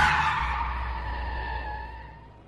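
A vehicle brakes hard on a road curve, nearly losing control, with a loud, sustained tire skid, a harsh screeching squeal that slowly fades over a couple of seconds, with low engine rumble underneath and no voices.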